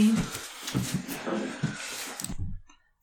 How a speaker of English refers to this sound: Come on, scoot the chair over. Please excuse the scooching noise.